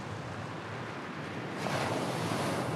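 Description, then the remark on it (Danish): Steady roar of ocean surf with a wave surging and breaking more loudly partway through, washing continuously, with some wind noise and no voices. “hvad det vil sige at, øh, at padlesurfe. Og ligesom bare ride på bølgen.”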